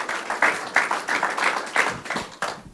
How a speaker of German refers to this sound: Ja? Okay, dann lass uns mit einem kraftvollen Applaus